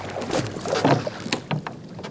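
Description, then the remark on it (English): Oars dip and pull through water as a band of young men steadily row a small wooden boat in darkness toward the shores of the Gallipoli Peninsula, with splashy strokes and creaking, sloshing sounds, plus a light wash of wind. “A band of young men row steadily onward peering into the darkness ahead.”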